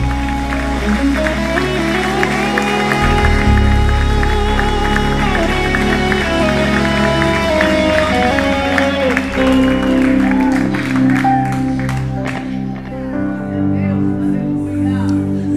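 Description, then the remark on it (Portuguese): An audience claps loudly and steadily for the Lord throughout, a dense continuous patter of applause mixed with sustained music and cheering voices, thinning slightly toward the end. “Alguém aplauda forte ao Senhor.”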